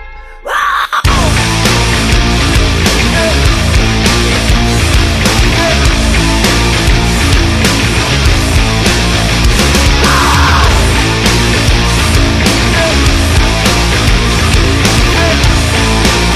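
After a split second of silence, a loud band track kicks in abruptly, with a steady driving drum beat under dense, full instrumentation that stays at constant volume throughout.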